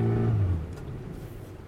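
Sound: car engine running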